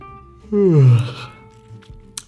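A single drawn-out human yawn with a rising then falling voiced tone, lasting about a second before trailing off into quiet background noise and a small click.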